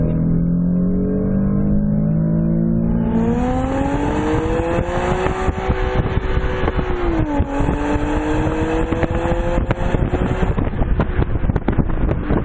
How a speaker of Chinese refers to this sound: 比如说我现在在 Sport 模式，排气声浪马上就出来了。这种 V6 的发动机的声音啊，跟 2.0T 的发动机声音音色是完全不一样的。